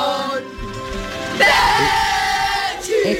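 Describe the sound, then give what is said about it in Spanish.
A class of students in London, wearing scarves, chant and yell a football song together at the top of their lungs, loud, with sustained shouted notes rising in intensity midway and continuing to the end. “Con sus bufandas y gritando a, gritando a pulmón lleno”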